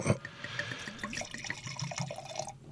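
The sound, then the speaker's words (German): Red wine gurgles and splashes steadily into a glass for a few seconds, a bubbling pour for the main course that tapers off at the end. “Ja, gieß da, mal ein.”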